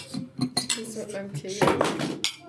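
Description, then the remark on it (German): Glasses clink together in a toast, several bright knocks in quick succession, with muffled voices murmuring underneath. “Dann sag ich mal Prost.”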